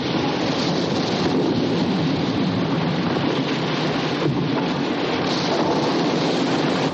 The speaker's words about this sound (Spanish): La montaña se desmorona y grandes trozos de roca caen al mar. Una explosión lanza los gigantescos cañones fuera de la tronera y caen al agua rodeados de grandes piedras.